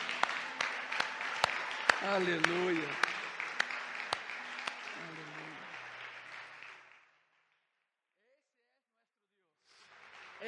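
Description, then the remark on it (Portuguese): An audience applauds God after a prayer in a steady, dense wash of clapping for about seven seconds while a voice calls out over it; the applause then fades to silence before a brief burst returns. “E se podem, dê um outro aplauso.”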